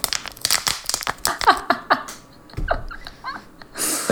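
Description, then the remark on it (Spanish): A plastic bottle is crinkled and squeezed, with sharp irregular crackles and pops coming in quick bursts, a louder rustling flurry near the end. “Puedo coger la botella de plástico.”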